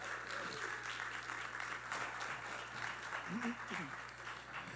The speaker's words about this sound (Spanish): Así que por eso le damos un fuerte aplauso de bienvenida.